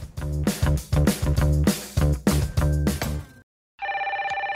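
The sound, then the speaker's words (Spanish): A rhythmic, punchy music passage stops abruptly, and after a brief silence a telephone bell starts ringing, a loud, rapidly trilling ring that continues to the end. “¡Momentito, no cuelguen!”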